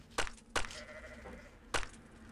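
Sheep bleat in a short burst of calls, with a few sharp, loud onsets and a wavering, nasal cry trailing between them. No one speaks.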